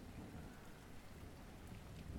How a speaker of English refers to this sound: No, I don't think you're dumb for being afraid of thunder.